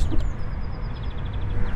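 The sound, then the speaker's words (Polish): A bird sings, a thin series of high repeated notes drifting over steady low background rumble, fairly faint and continuous throughout. “Po co by ten ptak śpiewał, którego tu słychać?”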